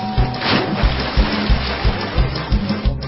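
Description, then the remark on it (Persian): Flood water rushes in a steady hissing wash during a flood test on a building site with natural vegetation cover, with a regular low thumping pulse running underneath throughout. No one speaks. “اگه تست سیل هم بگیریم ازش ببینیم درسته آه سیل اومد بله داره کار میکنه دیگه آه درخت جلوشو گیره”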